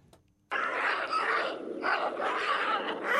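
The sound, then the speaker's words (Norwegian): Aggressive baboon calls erupt abruptly after a brief quiet moment, a loud, harsh, continuous barrage of overlapping barks and screams, raucous, almost like a dogfight. “Det her er faktisk bavianer også.”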